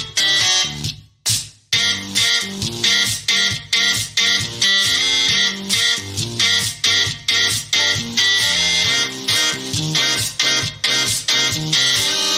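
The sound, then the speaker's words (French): Household devices played by a band, a hard drive, a calculator, an electric toothbrush and a steam iron, make music: a dense, buzzy, distorted melody with steady rhythmic pulses and brief gaps, loud and continuous, with no one talking. “interprété par le …, donc disque dur, calculette, brosse à dents électrique, ainsi qu'un fer à repasser à vapeur, il n'y a pas de raison.”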